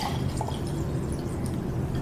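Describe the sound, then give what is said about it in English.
Alcohol being poured, a steady trickle of liquid with faint dripping, running continuously for about two seconds with no voices over it. “I'm pouring it right now. This alcohol.”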